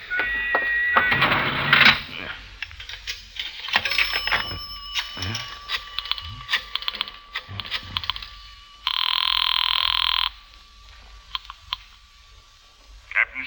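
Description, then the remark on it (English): A telephone rings in a couple of loud, buzzing bursts separated by a pause, with scattered clicks and handling noises in between and no voices. “Uh, where's the nearest phone? Uh, there is a public telephone over there, Effendi.”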